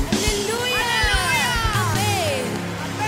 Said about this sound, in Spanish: Dale ese aplauso al Señor.